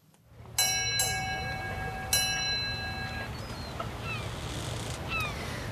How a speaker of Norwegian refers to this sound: Nå har eh, Ukeslutt beveget seg ut på fjorden, hvor eh, mange koser seg i båten med bølgeskvulp og måkeskrik.